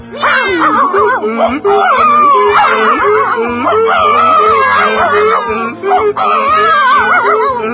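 A donkey, dog, cat and rooster, stacked on one another, cry out together as they burst through a cottage window, a loud, continuous jumble of howls, wails and yowls that rise and fall in pitch, over a steady pulsing beat underneath.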